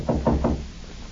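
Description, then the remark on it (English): Three firm knocks on a back door in quick, even succession, loud, followed by a quiet stillness with no voices. “The door, Monk. The back door.”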